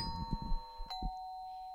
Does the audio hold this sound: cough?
no